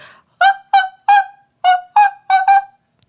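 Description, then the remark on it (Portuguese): A voice imitates a cuíca friction drum with seven short, squeaky whooping hoots in a quick, uneven rhythm, fairly loud, with no other sounds around them. “Eu sei fazer barulho de cuica”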